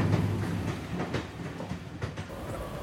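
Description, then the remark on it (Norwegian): A passenger train, the Sørtoget on its way to Kristiansand, rumbles steadily along the rails, with a low continuous roar and faint rhythmic clicks from the wheels passing over track joints. No one speaks. “suser vi over heia med Sørtoget”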